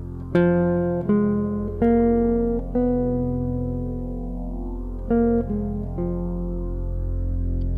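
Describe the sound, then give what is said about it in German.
A solo instrument plays a minor pentatonic line with the added blue note, a raised fourth between the fourth and fifth degrees: four sustained notes step upward, a long held tone, then three notes step back down, with no talking. “Also, das ist die Blue Note.”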